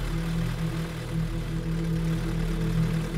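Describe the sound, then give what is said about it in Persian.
A car engine idles steadily, a low, even rumble with a constant droning hum that never rises into a rev. It is moderately loud, with no voices. “دنده را جا زد و پایش را روی پدال گاز فشرد و ماشین به حرکت درآمد”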